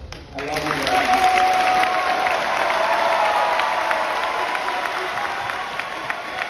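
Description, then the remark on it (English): A whole student body cheers and applauds steadily in an echoing gym, a dense wash of clapping and shouting voices that stays loud and sustained throughout. “all because of hearts of service with the whole student body cheering”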